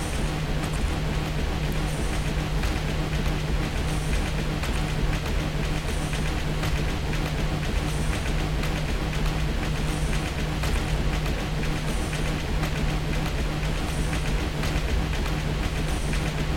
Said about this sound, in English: Uh, went over a railroad tie a little bit.